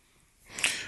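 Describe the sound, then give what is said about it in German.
A single short sneeze, a soft breathy burst that swells suddenly and trails off, fairly quiet, with no talking around it. “Gesundheit.”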